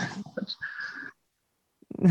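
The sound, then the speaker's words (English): A dog snores, one long raspy, wheezy breath that rattles for about a second, then stops. After a short pause, a voice briefly starts up. “I'm sorry so, I got distracted, but my dog is like sawing logs, snoring.”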